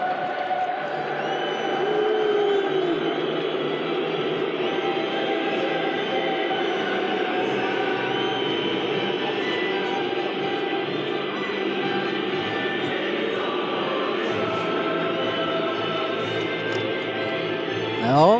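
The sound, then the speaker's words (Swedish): A large stadium crowd boos without pause as the City team makes its entrance, a thick, steady roar of low jeering voices that holds at the same loudness for the whole stretch. “Ja, det vi får höra är helt enkelt eh, inmarschen från City det här.”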